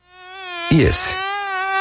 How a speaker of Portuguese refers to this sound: Esse é o som de um criadouro do mosquito da dengue.